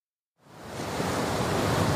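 After a brief silence, a huge wave rams a ship and washes over the planks of its deck with a sudden swelling roar of rushing water that stays loud.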